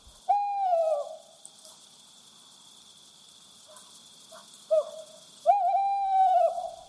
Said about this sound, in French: tandis que l'iconique chouette Hulotte ulule de son populaire chant.